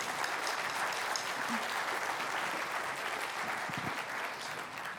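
An audience applauds, with dense, steady clapping that holds at an even, fairly loud level for the full five seconds before easing slightly at the very end.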